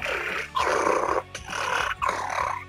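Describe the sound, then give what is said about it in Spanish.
A voice imitates the rough, sputtering noise of a car engine running cold in four loud, gravelly bursts with short gaps between them, growl-like and strained, with no words spoken. “Y el auto te empieza a hacer un... En frío te empieza a hacer un...”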